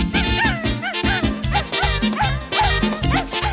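Loud, upbeat dance music with dog barks woven into the beat, short yelping barks recurring rhythmically over a pounding bass line, with no one talking.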